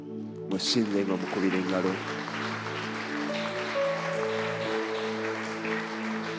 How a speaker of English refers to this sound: we give you praise we honor you lord we glorify you you are worthy worship Him with a clap offering.